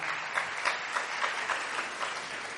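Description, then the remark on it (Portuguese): An audience applauds a man called up to the front by the speaker: a dense wash of many hands clapping with a few louder claps standing out at a roughly regular pace, with no voices over it. “Aplauda aí o campeão pela vida desse homem.”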